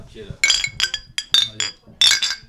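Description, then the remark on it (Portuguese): Glasses clink together in a toast, several bright ringing taps in quick succession, fairly loud, with a little voice and murmur around them. “Dá um cheers aqui, né?”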